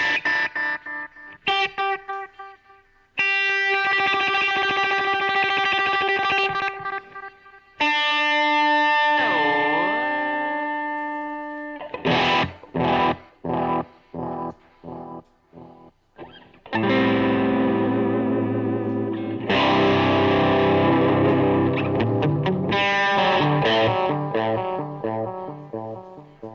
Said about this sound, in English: Tails. See, listen to that. Listen to the, like the end of the delay. It gets it starts to get kind of like gross. I like that. Hear that? Kind of goes out of tune a little bit.